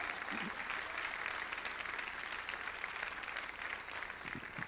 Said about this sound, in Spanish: Si tú lo puedes creer, dale un aplauso fuerte al Señor.